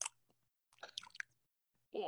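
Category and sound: vocal imitation, imitated lip smacking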